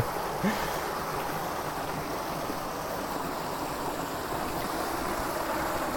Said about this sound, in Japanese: ああ川の水の音が大きい